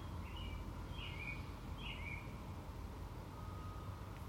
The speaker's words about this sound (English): Like the birds that I hear singing their spring song, there's a peace and a quiet to it, even though it's a cacophony of sound.